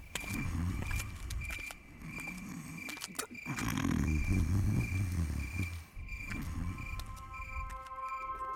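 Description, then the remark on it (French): A sleeping villager, being lifted and carried off, snores deeply in slow, rumbling cycles, each drawn-out breath rising and falling, while crickets chirp steadily in the background. “Les ronflements de l'homme ne diminuaient pas, il dormait profondément.”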